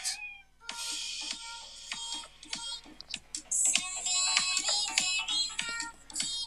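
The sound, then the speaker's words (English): Bongo cat meme song, made about a popular internet meme of a cat playing bongos: quick hand-drum taps patter over a bright, busy melody with high, meow-like tones, playing continuously and fairly loud for several seconds with no one talking. “the most popular one is definitely the bongo cat”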